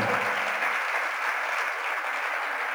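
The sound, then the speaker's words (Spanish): Steady applause from an audience following a reading of Romans 5, a dense wash of many hands clapping at an even, sustained level for a few seconds with no voices standing out. “ahí no hay un amén, ahí basta un aplauso.”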